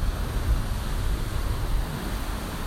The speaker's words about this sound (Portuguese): com esse barulho de fundo mais conhecido como mar. Estou aqui hoje na trilha sonora de Celan Sul, curtindo aqui o visual de fim de tarde da maresia, o oceano calmo, tranquilo